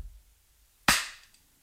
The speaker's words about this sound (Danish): kan du lige lave bare et klap ud i rummet, så man kan høre rumklangen?